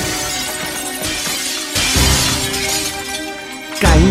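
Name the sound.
glass shattering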